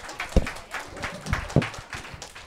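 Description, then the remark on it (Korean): An audience applauds with a steady, moderately loud patter of clapping, broken by a few sharper thumps, and no one speaks over it. “네, 박수 부탁드릴게요.”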